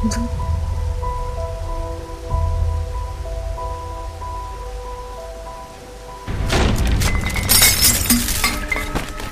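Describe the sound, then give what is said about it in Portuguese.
A low rumble with steady humming tones gives way, about two-thirds through, to a sudden loud downpour: dense, crackling heavy rain that hisses and patters until the end. No one speaks. “Você toma cuidado com essa chuva.”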